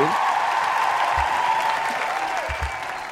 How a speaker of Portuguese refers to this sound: Vou colocar palmas aqui no final para